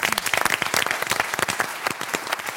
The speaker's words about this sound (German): kommen wir zu dem wahrscheinlich abenteuerlichsten Mann in dieser Runde, und zwar zu Janis McDavid. Hallo nochmal. Hallo. Nochmal Applaus.